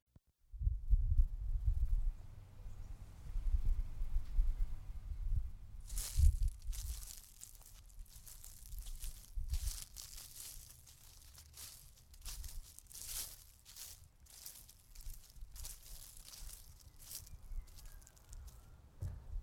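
Footsteps crunch through dry leaves and grass, a steady run of crackly, irregular steps that follows a few seconds of low, muffled thumping. No one speaks.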